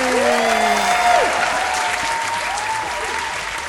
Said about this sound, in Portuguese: Uma salva de palmas.